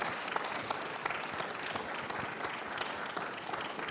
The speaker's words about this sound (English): Could you give the panel a round of applause?